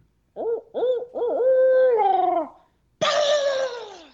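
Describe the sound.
A hunter standing on a ridge imitates an owl's hooting call with his voice: a few short rising hoots, then a long drawn-out hoo that trails off, followed by a final loud, falling hoot. Fairly loud, with no other sounds.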